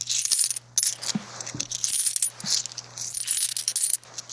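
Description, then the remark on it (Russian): Coins clink and jingle continuously, a bright metallic rattle of money spilling and dropping, with several louder clinks standing out over a steady shimmering jangle and no one speaking. “Ну, это просто звук денег.”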